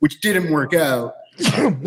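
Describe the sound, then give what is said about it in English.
A single short, sharp sneeze from a man who has COVID bursts out between stretches of his speech, fairly loud, with talking resuming right after it. “excuse me. Reasons. Bless you.”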